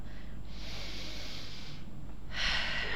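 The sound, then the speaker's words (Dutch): A long, deep breath drawn in, followed after a brief pause by a shorter, rushing breath out. No one speaks. “Diepe ademhaling.”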